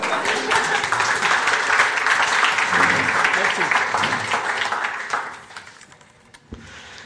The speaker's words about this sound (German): Ein Applaus bitte.